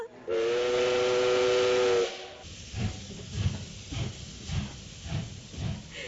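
A loud, sustained steam whistle blows for about two seconds over a hissing rush, then gives way to the steady rhythmic chugging of a steam train pulling away, as a 'super-fast carriage' sets off on departure.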